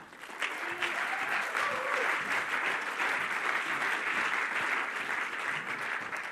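Sustained audience applause in the ICF Luzern church, a dense, steady wash of many hands clapping at an even loudness for several seconds, with faint cheering mixed in and no speech over it.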